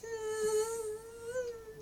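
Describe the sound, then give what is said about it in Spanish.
A steady, high-pitched mosquito whine drones continuously for about two seconds, fairly loud, wavering slightly in pitch with no talking over it. “Y bueno, resulta el tema que viene es de hay un insecto que me molesta tanto a la noche”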